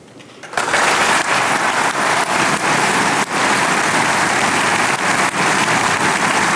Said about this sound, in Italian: questo era il giuramento e nuovi applausi, ancora un applauso da parte dei, dei grandi elettori